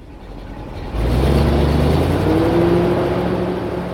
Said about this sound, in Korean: 트럭은 나무가 한가득 실리면 시동을 걸어 어딘가로 떠났다. 트럭이 출발한 자리에는 곧바로 다른 트럭이 들어왔다.